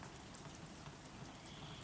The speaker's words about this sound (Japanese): 雨の音が聞こえた屋根を打つ雨の音窓を叩く雨の音木々の葉に当たる雨の音アスファルトを濡らす雨の音